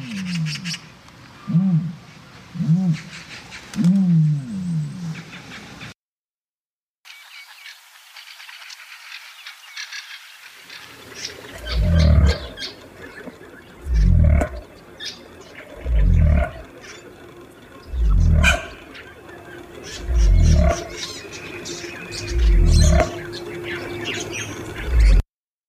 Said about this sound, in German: Die erste ist ein Vogelstrauß, die zweite ein Kasua.